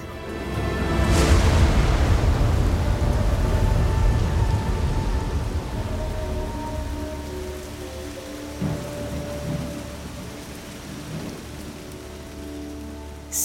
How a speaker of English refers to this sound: Sita loved the rain.